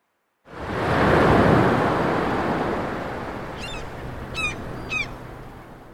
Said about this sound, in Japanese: 先生何が聞こえるんですか波の音いいえ私の音生の音ええ、私の音。